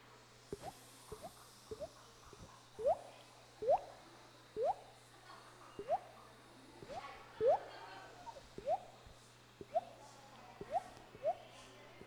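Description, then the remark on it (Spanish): A group of people, on a count of three, imitate water with their voices as bubbles, rain, river and sea: a steady run of bubbly, rising plops and drips, more than a dozen in quick succession, moderately loud over a faint continuous low hum. “El agua tiene sonido de burbujas, el agua tiene sonido de lluvia, el agua tiene sonido de río, de mar.”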